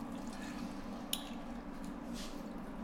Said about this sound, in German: Und jetzt geben wir noch so ein bisschen Weißweinessig dazu.